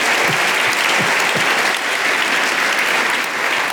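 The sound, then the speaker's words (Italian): An audience claps steadily throughout, a dense, even wash of many hands applauding at a constant loud level with no voices rising above it. “Facciamo un applauso anche a ecco. tutti gli Alberti che insomma, lo meritano.”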